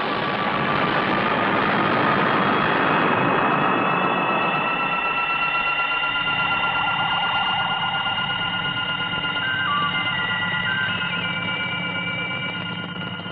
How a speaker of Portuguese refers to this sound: vamos destacar o início do filme com uma música tão vagabunda, cara. Acho que é uma das músicas mais vagabundas que eu já ouvi na minha vida.